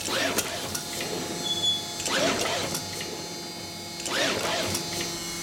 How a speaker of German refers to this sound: Wir haben gerade gehört, wie hier drei Shuttle hintereinander in relativ kurzer Zeit eben bedruckt worden sind. Dazu sind die Shuttle unter dem Sieb stehen geblieben.